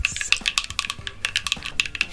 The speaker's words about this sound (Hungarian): Nem, általában műkörmös csajok szoktak kopogtatni a, a izén, a, az asztalon. Istenem. És sokaknál ez okoz egy, egy kikapcsolódás élmény.